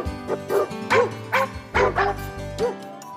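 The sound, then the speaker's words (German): A dog barks in a quick, uneven series of about seven sharp woofs, fairly loud, with a low steady hum underneath and no one speaking. “Der Pavlovsche Hund.”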